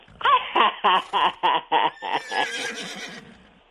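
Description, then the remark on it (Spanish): A person imitates the neighing of Tío Pancho's horse, which neighs every morning: a rapid series of about seven loud, pulsing bursts that break into a long, shaky, trailing neigh. “Bueno, pues aquí lo presentamos el caballo del tío Pancho, que relincha por la mañana, todas las mañanas y todos los días.”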